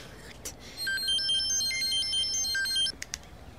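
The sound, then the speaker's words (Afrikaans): A phone rings with a bright electronic ringtone, a quick stepping melody of high beeping tones lasting about two seconds, fairly loud, with a few soft knocks just before and after. “Ja, antwoord antwoord eers.”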